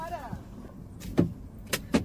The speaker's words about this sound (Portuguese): Se não destravar, se não destravar, não abre. Pô, me ofereceu uma carona, não vai abrir o carro?